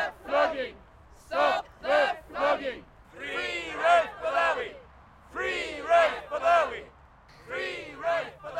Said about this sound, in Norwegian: Og det er jo foran den saudi-arabiske ambassaden første fredagen i måneden. Så om vi er litt hese i stemmen i dag, så er det fordi vi har stått utafor den ambassaden og skriket så høyt vi bare kan. Stopp det!